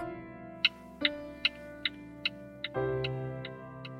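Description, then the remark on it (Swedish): A car turn signal ticks steadily, about nine crisp clicks at an even, brisk pace, layered over a sustained droning musical tone that shifts pitch twice. “Och därav så är det ju det som de flesta kopplar ihop med ett blinkersljud, ett relä.”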